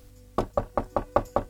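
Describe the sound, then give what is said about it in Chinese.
Six loud, rapid knocks on a door in a steady, urgent rhythm, each a sharp thud with a woody ring, following a brief quiet moment with no voices. “说话间，门口响起激烈的敲门声，朱丞相不悦的点了点头，朱四怀立刻去开了门，然后无声的退了出去。”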